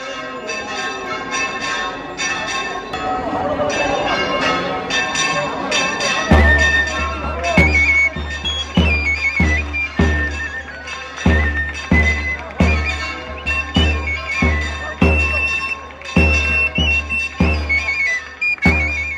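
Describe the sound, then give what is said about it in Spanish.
The San Telmo church bells in Chiclana ring out in a run of loud, repeated clanging strikes with bright ringing overtones, an irregular rhythm, and a low steady hum that joins partway through, as the Rocío cart sets off. “vamos a escuchar los sonidos, además de esas campanas de Santelmo que tanto nos gusta a todos en Chiclana de cómo salía, cómo salía la carreta del Rocío que sonaba de esta manera.”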